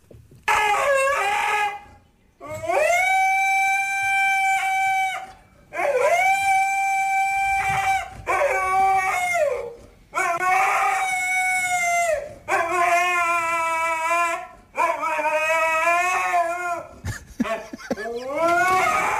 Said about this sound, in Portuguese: vamos ouvir primeiro uh, uh, o som tal e qual foi captado pelo, pela dona do, do Husky